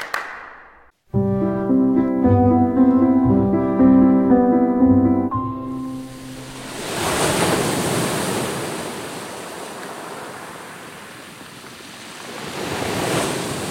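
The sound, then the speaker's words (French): After a short musical phrase fades, steady seaside ambience at Antibes on the Côte d'Azur takes over: surf washing in and receding with gusty wind noise, swelling and easing over several seconds, loud, with no voices. “J'entends la mer, j'entends le vent.”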